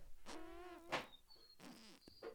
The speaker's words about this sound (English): I made a weird mouth noise.